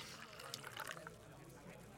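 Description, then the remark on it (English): A drink being poured into a glass, a soft, steady trickle with a few brighter splashy moments, fairly quiet, with a faint murmur of background voices. “He pours you one.”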